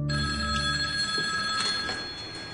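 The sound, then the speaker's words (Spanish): An old-fashioned telephone bell rings loudly and continuously, its bright metallic clatter filling the whole moment with a steady shimmering tone and no voices present. “Sí, dígame. Manolo, al teléfono.”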